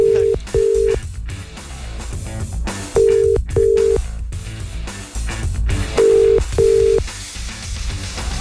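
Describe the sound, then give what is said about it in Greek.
A telephone ringback tone repeats unanswered, three sets of double rings spaced evenly over about eight seconds, clear and steady above a busy, muffled background bed. “Ούτε η Ρένα το σηκώνει.”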